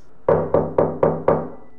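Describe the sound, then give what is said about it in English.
Five firm knocks on a wooden front door in a steady, evenly spaced rhythm, each with a sharp attack and short resonant decay, fairly loud with no voices. “Imagine being woken up at 2 a.m. from a knock at your front door.”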